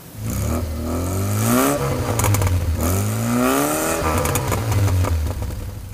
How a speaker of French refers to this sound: Elle s'engagea sur le chemin mal dégagé, les roues patinées dans la neige fraîche, la voiture chassée de l'arrière. Mais Sandrine accélérait sans cesse, rendant le véhicule encore plus instable.